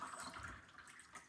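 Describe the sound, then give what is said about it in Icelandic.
Water pours into a glass in a short, steady splashing stream, with the liquid's tone shifting slightly as it fills. No one speaks. “má ég líka með vatn vatn”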